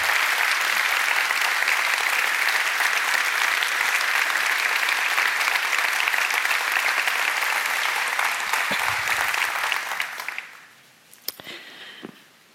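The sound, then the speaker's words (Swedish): Steady, dense applause from a large audience welcoming Archbishop Antti Jackelén to give a Bible study, a broad crackling wash of many hands clapping that holds for about ten seconds, then thins out to a few scattered claps and fades away. “Och det här är ju nåd, att få applåden innan man har gjort någonting.”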